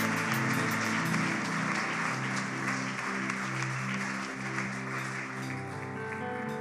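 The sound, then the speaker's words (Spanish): A large church audience claps steadily and loudly throughout, applauding God, a dense wash of applause with sustained instrumental chords, like a keyboard or organ, playing underneath. “Dale un aplauso a Dios por estos corazones.”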